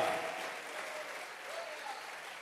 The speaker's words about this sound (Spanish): ese aplauso.